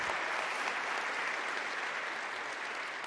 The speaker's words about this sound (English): All right, let's give another round of applause for everybody that got baptized today.